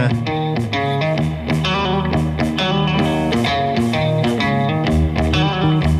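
A recorded rock cover version of a song plays loudly and steadily, with distorted guitars and a regular driving drum beat filling the whole stretch, and no voices talking over it.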